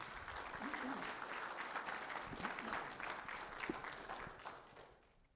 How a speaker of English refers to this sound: Let's give the Lord another clap offering, if you would.